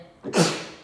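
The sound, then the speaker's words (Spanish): A single sneeze: a short inhaled catch, then a loud, breathy burst that trails off in a hissy exhale. No talking around it. “¡Ah! Salud.”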